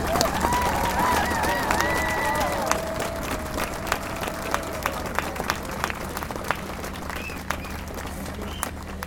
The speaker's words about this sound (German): Und vielleicht können wir kurz einen solidarischen Applaus spenden an die Streikenden heute.